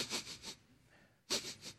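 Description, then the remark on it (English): A voice loudly imitates sniffing: a quick run of three sharp, breathy sniffs, a brief pause, then another cluster of sniffs, with no talking. “You're like, you're the Holy Spirit trying to sniff out sin in everybody's life.”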